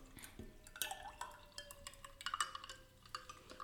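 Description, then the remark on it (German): Fresh sparkling mineral water from a Soda-Stream is poured into a glass half filled with Rosato spritz and two ice cubes, fizzing and crackling, with scattered bright clinks and ticks as the cubes shift. Fairly quiet, no voices. “Ich mag frisches Mineral aus dem Soda-Stream so gerne, weil es klingt so schön. Es sprudelt so schön.”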